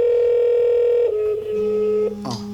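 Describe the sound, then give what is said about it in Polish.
Electronic telephone keypad tones sound over a speakerphone as a number is dialed to call a mobile phone, a long steady beep that shifts pitch several times in quick steps, fairly loud, with no one talking. “Włącza nam się układ głośno mówiący i, I będzie dzwonić komórka. Wybrał telefon, y, wybrał numer, który ja wybrałem,”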